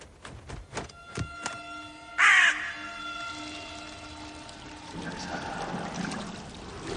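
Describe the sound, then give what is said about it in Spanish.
A single loud, harsh crow caw rings out at a window after a few dull knocks, then water pours and trickles steadily into a copper bathtub in the background. “En la ventana, un cuervo grazna en señal de mal augurio.”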